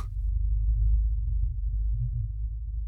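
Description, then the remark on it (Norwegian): A steady, low droning hum that sounds rather like a diesel engine idling, though no engines or vehicles are nearby and its source is unknown; continuous and unchanging throughout with no voices or other sounds. “Lyden kan høres litt ut som en dieselmotor, men når jeg tenker tilbake, så var det jo ingen motorer eller biler eller noe slikt i nærheten.”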